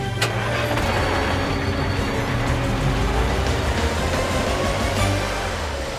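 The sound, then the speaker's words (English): A toy police car drives off, its engine-like rumble running steady and loud for several seconds with a dense, noisy texture and no voices over it. “Carl drives through the streets and arrives at the amusement park.”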